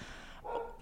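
A single short bark from the neighbours' dog, heard through thin walls, sounds in the background, faint, rising briefly over a steady low noise with no talking.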